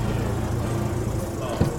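car engine

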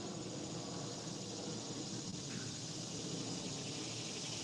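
airplane flying overhead

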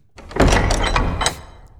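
door closing sound effect

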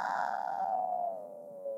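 cat meowing

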